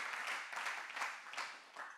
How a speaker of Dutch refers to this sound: Amen. Laten we die God een applaus geven.